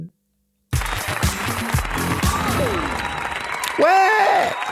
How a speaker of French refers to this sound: les applaudissements en même temps que le jingle, je ne sais pas pourquoi.